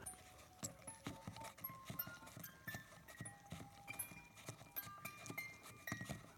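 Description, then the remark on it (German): A music box plays slowly, with bright plucked metal notes ringing over a steady, even clicking of the crank, with no voices. “Ach hier, das ist ja ähm, eine Spieluhr, wa?”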